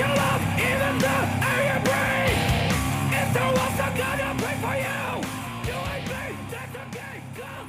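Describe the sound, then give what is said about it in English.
A loud, dense hardcore punk track plays, with a vocalist yelling hoarsely over driving distorted guitars and pounding drums. The yelling continues throughout, with no quieter passages. “it just like yells the whole fucking time.”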